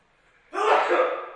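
A single sneeze from someone in the audience bursts out abruptly after a moment of near quiet, a sharp noisy blast that trails off over about a second.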